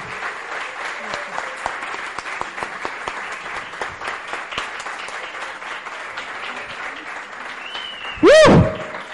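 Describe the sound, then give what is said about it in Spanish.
An audience claps steadily in a dense, crackling wash of applause, with a brief loud whoop or cheer bursting out near the end. “Dense un aplauso, por favor.”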